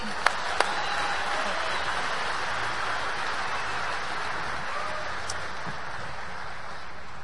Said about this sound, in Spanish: Un aplauso para ustedes que sí son para el negocio.